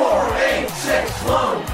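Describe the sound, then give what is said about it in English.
A large crowd chants the Aspen Mortgage phone number together in loud, rhythmic unison, many voices rising and falling in repeated bursts that fill the space with a dense roar. “Wait, what's the crowd chanting now?”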